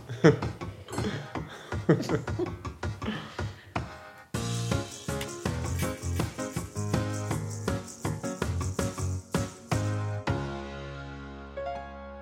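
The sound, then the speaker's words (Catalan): Glasses clink together in a toast to lost lottery tickets, a quick run of bright chiming taps over busy clatter and murmuring voices, ending in a sustained ringing tone that slowly fades. “Però hem de brindar per les loteries perdudes.”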